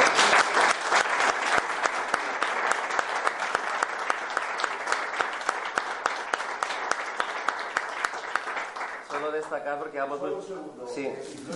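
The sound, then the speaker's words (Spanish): Loud, sustained audience applause with dense, steady clapping from a crowd, lasting about nine seconds before fading as a voice begins talking over the tail end. “Un aplauso muy fuerte.”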